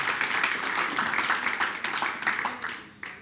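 An audience applauds, a dense, steady wash of many hands clapping for a few seconds, tapering slightly with a few sharper claps near the end.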